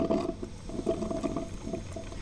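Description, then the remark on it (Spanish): A coffee maker gurgles and slurps as it brews, a steady run of low bubbling, sputtering bursts with no one talking. “¿Escuchen la cafetera?”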